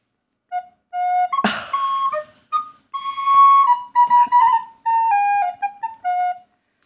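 A soprano recorder plays a short, bright melody of a dozen or so clear, high notes, moderately loud, with a brief clatter near the start and no talking.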